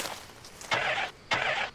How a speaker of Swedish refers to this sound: Men bilen ville inte starta och Flisa tittade då snabbt på pilen.